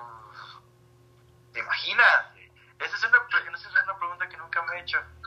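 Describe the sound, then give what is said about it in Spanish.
A person makes a drawn-out, rasping roar imitating a dinosaur, followed by a run of choppy vocal noises, all thin and band-limited as if heard over a phone line. “O sea, fue mi imitación de un dinosaurio, perdónenme por eh, traumarlos de por vida.”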